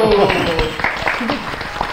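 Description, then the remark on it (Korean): An audience bursts into steady applause, a dense, even patter of many hands clapping that holds for about two seconds, with a voice briefly audible underneath at the start. “네, 여기서 한번 박수.”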